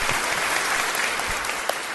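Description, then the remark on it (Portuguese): A steady burst of applause celebrating a website's new layout, many hands clapping in a dense, even wash of sound that holds at a constant loudness throughout, with no voices. “Uma salva de palmas, eu acho.”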